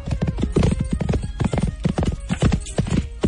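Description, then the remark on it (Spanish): Rapid, rhythmic hoofbeats of a galloping white horse, ridden for several hours, clip-clop loudly, a steady drumming pattern filling the whole stretch with no one speaking. “Cabalgó durante varias horas cuando, de pronto, el caballo cesó su marcha para tomar aliento.”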